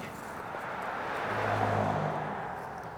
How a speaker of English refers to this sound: Cars slalom up the steep canyon, speeding past a decrepit old miner's shack.